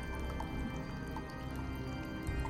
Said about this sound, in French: Mais tu entends l'écoulement de la rivière.